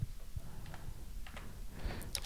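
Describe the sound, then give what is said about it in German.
A quick run of soft, irregular clicks on a computer keyboard, quiet, tapping out several keystrokes over a low background hum with no voices. “Jetzt, jetzt klickst, jetzt gibst du es ein irgendwo in deinen Computer, an die wollte, Tasten, ne? Das hört man jetzt.”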